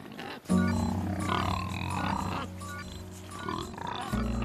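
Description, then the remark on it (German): Pigs grunt and snort in a steady, overlapping stream of low, rough calls that continues throughout, with a harsh tonal squeal-like grunt near the start and end. “Das Prinzip, Schweine als Leasing-Schweine zu vermarkten”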